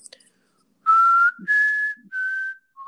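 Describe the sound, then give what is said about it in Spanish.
A person whistles a short, clear four-note tune, imitating the whistle of the Coco in the closet: three sustained notes, slightly rising then dipping, and a brief final note, with no talking. “Casi todo Freddy Krueger, güey, nomás que en el closet. El chifla”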